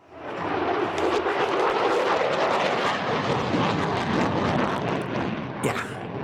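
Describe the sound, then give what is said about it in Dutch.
The thunderous, steady roar of an F-35 (JSF) fighter jet engine, a dense rumbling blast that swells in quickly and holds loud for several seconds with a brief crackle near the end. “Dat is toch onmiskenbaar de JSF, of moet ik zeggen F-35.”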